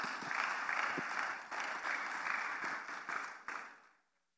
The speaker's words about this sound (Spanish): Dele un aplauso al Señor, por favor, en esta noche.